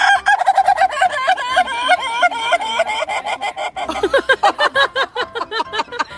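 A rooster lets out loud, wavering calls that break into rapid stuttering pulses, sounding more like sobbing than a proper crow, with no voices.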